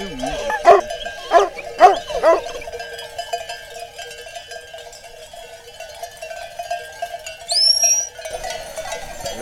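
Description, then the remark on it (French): A dog whines in a steady, high-pitched drone because it wants to go outside, with a few short yelps near the start and a brief rising squeal toward the end. “Lui, il couine parce qu'il a envie de sortir, c'est tout.”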